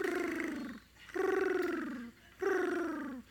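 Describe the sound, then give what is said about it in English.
A voice makes three long, wavering, strained calls with short pauses between, a loud, throaty bird-like warble imitating how a woman prayed in tongues, sounding like a dodo bird. “She's with the Lord now, but when she prayed, she sounded like a dodo bird.”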